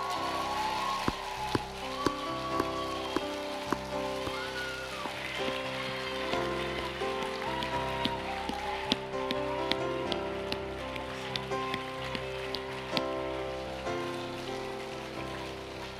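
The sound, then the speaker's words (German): An audience breaks into sustained applause for people who have come up onto the stage, a dense, steady crackle of many hands clapping for about sixteen seconds, with a few sharper claps standing out and a low steady tone underneath. “Gebt ihnen doch mal einen Applaus.”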